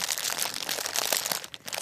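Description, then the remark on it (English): Continuous crinkling of a plastic Sour Patch Kids candy bag, a dense crackly rustle with sharp bursts as the packaging is squeezed and handled, with no talking. “And then, you know, you have various like packaging. You can have like crinkly. Ooh, there's a lot of sounds in here because these are Sour Patch Kids.”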